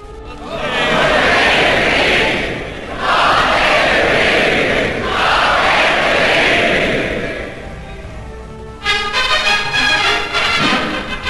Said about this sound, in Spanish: Lo que escuchamos es la coronación de Isabel II, la primera coronación transmitida por televisión.